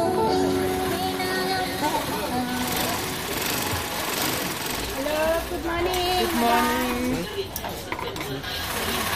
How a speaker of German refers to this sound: überall Nähmaschinen. Eine Frau sitzt vor ihrer Haustür und arbeitet an einem glitzernden Gewand. Zwei Häuser weiter noch eine.